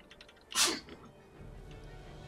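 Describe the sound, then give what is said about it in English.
A single sharp sneeze bursts out, a quick explosive blast that fades into quiet background noise with no talking. “Sure, you better sneeze, you fucking bitch.”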